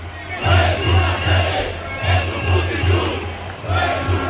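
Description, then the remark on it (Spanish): A crowd of about 300 protesters chants in unison at night outside the Socialist party headquarters on Ferraz, rhythmic shouted phrases repeating in steady bursts with a low rumbling undertone, the massed voices rising and falling in waves throughout. “Han sido unas 300 personas las que se han concentrado esta pasada noche ante la sede socialista en Ferraz.”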